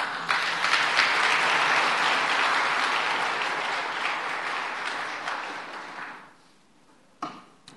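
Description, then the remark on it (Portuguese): A crowd claps steadily in a dense, loud burst of applause for about six seconds, then it fades out, followed by a brief quiet pause and a last short clap. “Palmas para ela, gente.”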